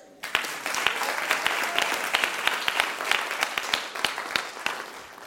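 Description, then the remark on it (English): An audience bursts into sustained applause for fathers, a dense, steady patter of many hands clapping with a few sharper individual claps standing out, holding at a moderate level for several seconds. “Clap for fathers.”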